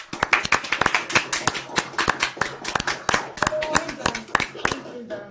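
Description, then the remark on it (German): Scattered clapping from several participants at once, a last round of applause with everyone's microphones switched on, a dense, uneven patter of hand claps lasting a few seconds, slightly boxy and compressed as if picked up through separate microphones. “Und dann können wir nochmal einen letzten Applaus,”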